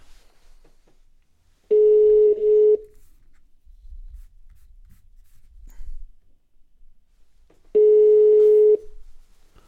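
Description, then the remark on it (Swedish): Two steady mid-pitched ringback tones, each about a second long and spaced several seconds apart, as a telephone call to a woman rings through. Faint low rumbling fills the gap between them, with no talking. “vi ringer upp henne och hör om hon har att säga om...”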